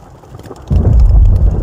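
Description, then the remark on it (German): A deep roll of thunder from a heavy thunderstorm suddenly swells up after a quieter stretch of rain-like hiss, rumbling loud and low for the rest of the moment with no voices present, heard from inside a pitched tent. “Ich war einfach so froh, dass ich einen Ort gefunden habe, Zelt aufgestellt habe und ja, gemütlich lag und jetzt kam einfach krasses Gewitter”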